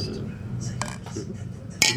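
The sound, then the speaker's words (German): Cups knock together in a toast, a few light clinks with a dull, plastic-sounding tap, ending in one sharper clink near the end, over low background murmur. “das klingt dann nach Plastik.”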